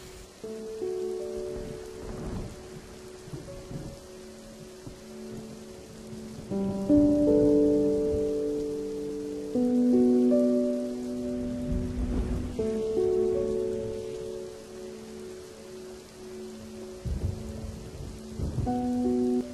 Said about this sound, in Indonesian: Hujan.